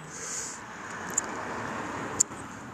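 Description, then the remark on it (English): A steady, low wash of road traffic from a road beside the river at Maidenhead fills the background on an evening, fairly quiet and continuous, with two brief sharp ticks standing out and no one speaking. “So if you hear any traffic in the background, I apologise because I sat between the river and the road, uh, and it's beautiful out here.”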